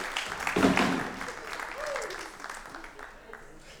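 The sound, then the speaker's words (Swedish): Audience applause for the worship team at a church gathering swells into a dense burst of clapping, then settles into steady, moderately loud clapping that gradually thins out, with a voice briefly audible partway through. “Vi ger dem en applåd, ja.”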